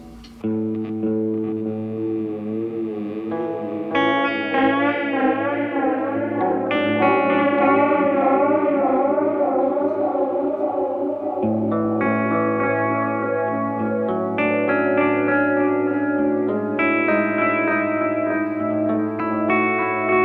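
An electric guitar plays sustained chords through an oil can delay effect, wobbling and wavering, the pitch gently undulating with a watery vibrato and echoing repeats, steady and fairly loud with no talking.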